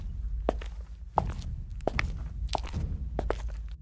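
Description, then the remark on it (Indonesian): Footsteps walk at a steady, unhurried pace into an alley, each step landing with a soft, slightly crunchy thud over a low background rumble, with no voices. “Saat kaki kami melangkah, setiap langkah kami terdengar langkah lain di belakang kami.”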